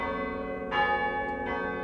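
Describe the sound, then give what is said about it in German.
A large church bell, the biggest of the church's bells, pulled by a bell ringer in Leverkusen, Germany, rings with a deep, sustained tone, struck twice in slow succession, each stroke swelling over the lingering hum of the previous one. “Also es macht wirklich Laune, da an, besonders an der dicksten Glocke zu ziehen und die richtig zum Klingen zu bringen.”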